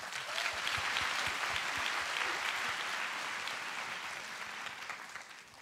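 A crowd applauds steadily, a dense wash of many hands clapping at an even loudness that tapers slightly toward the end, with no talking over it.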